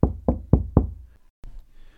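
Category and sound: impact, knocking on a door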